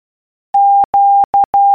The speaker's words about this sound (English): Q. Quebec. Quebec. Morse code.